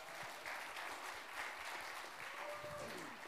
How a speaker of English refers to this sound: Can we give all them guys a warm welcome or applause?